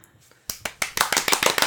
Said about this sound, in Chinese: 自己拍手， 同时对，帮你鼓掌一下，感谢你今天就是那个热情的参与。